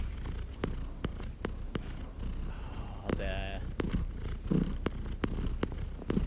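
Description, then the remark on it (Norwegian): A domestic cat, the speaker's own, purrs in a steady, continuous low rumble, broken by scattered soft clicks and one brief tonal chirp partway through. “Nei, for det er katten din, ikke sant? Det er katten min.”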